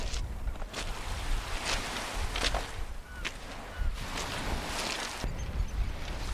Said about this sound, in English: And here's just the lulling sound of sea.